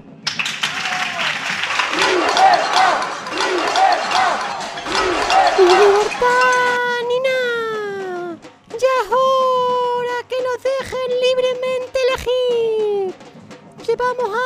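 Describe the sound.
A burst of dense audience applause at a comedy sketch staged as a congress of viruses about doctors and medicines, loud and steady, then fades as a man begins speaking in a raised, emphatic voice.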